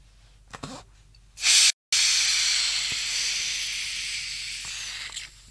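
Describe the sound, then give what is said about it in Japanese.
A sharp burst of hiss as a bottle of Pepsi Mega Nama Zero soda is opened, cutting out briefly, then a long steady fizzing release that slowly fades over several seconds, with no talking. “だいぶ、だいぶ抜けましたね。何かが。何かが抜けましたね。”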